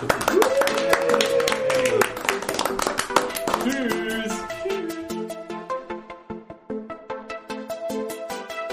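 Steady rhythmic clapping keeps a quick beat over a tonal, melodic musical backing, sounding like a jingle with claps, fairly loud and close throughout.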